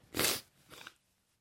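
A loud, breathy nose blow into a tissue: one strong hissing burst followed by a shorter, weaker second blow, then silence.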